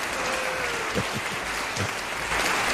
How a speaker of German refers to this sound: Und wir haben natürlich ein yeah. Highlight, da freue ich mich besonders drauf, Tobi Kämmerer vom ja. HR. Da müssen wir Applaus einspielen.